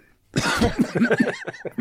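A man sitting at home sick gives a burst of harsh, repeated coughing, several rapid hacking coughs in a row with some throat-clearing rasp, loud and with no talking.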